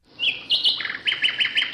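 Birds chirp in quick, high-pitched bursts: a rising whistle followed by a steady run of short repeated tweets, clear, with no voices.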